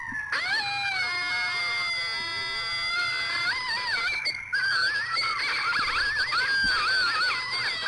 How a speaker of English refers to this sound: That's four coyotes.